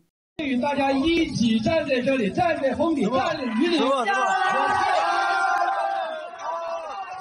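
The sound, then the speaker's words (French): A crowd of students outdoors in pouring rain shouting and jeering loudly at a school official speaking, demanding he get off the stage, many overlapping voices rising into a sustained clamor that continues throughout, fading slightly at the end. “Lorsqu'il a mentionné qu'il avait affronté la tempête avec les élèves, la foule a commencé à lui demander de descendre de scène.”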